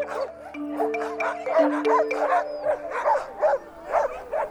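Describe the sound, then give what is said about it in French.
A chorus of sled dogs, impatient to set off on a sled ride on a snowy, cold, sunny morning, bark and yelp excitedly, overlapping in a rapid, continuous racket with some whining, loud throughout. “Les chiens sont un peu impatients de partir, j'ai l'impression.”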